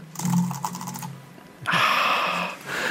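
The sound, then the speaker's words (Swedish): Rapid typing on a computer keyboard: a quick run of crisp key clicks, a short pause, then a denser, louder burst of clattering keystrokes with no one talking. “Alltså du kan ju aldrig använt det här tangentbordet som du skickade till mig.”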